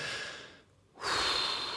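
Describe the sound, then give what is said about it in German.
A deep, audible breath taken as a calming de-escalation step: a long airy inhale, a brief pause, then a strong, breathy exhale. No talking. “Klappe halten, atmen.”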